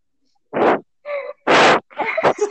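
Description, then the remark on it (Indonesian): A bird calls in a quick series of four loud bursts, alternating harsh raspy squawks with more tonal, warbling notes, with no talking over them. “apaan tuh suara apa kok ada burung”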